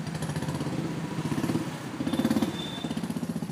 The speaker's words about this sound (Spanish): Ruido, mucho ruido, sonidos de ciudad.